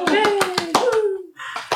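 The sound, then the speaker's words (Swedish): A short burst of quick, steady hand claps, about ten in a row, with a voice calling out in a falling, drawn-out tone over the first part before the clapping trails off. The applause is for a book coming out in the autumn. “Men nu måste vi ju ta en liten applåd för en bok som kommer ut i höst”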